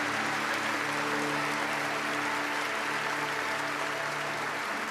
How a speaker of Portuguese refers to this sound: Aplaudo mais forte que você puder.